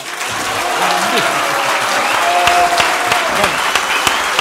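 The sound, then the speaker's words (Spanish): A steady burst of audience applause at the close of the live show Política para Adultos, dense and even clapping sustained throughout at a fairly loud level, with faint voices mixed underneath. “Con este aplauso aprovechamos de despedirnos.”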